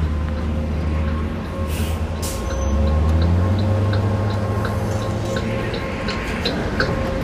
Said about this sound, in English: And here's the bus.